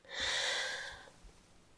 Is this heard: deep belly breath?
yes